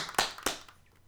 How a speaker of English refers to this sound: So I'm gonna clap myself in, get quiet, and then the podcast will begin.